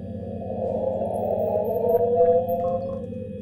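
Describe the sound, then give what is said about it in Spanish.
A dense, grainy electronic texture of layered low tones built by granular synthesis from sounds broken into particles, with a sliding mid-range tone rising through it that sounds almost like a whale call; the piece by a sound artist. Steady, fairly loud, no voices. “metido a un proceso de, de síntesis granular, las ha desmenuzado a tal punto que las ha vuelto partículas y luego con esas partículas ha construido esta composición.”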